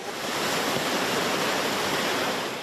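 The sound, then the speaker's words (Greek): A steady, loud roar of rushing floodwater in Pefka, where the water has closed the road to traffic, fills the whole moment, a dense continuous wash of churning water with no pauses and no voices. “Όπω μπορείτε να δείτε, λόγω του νερού έχει κλείσει το συγκεκριμένο κομμάτι τη οδική κυκλοφορία.”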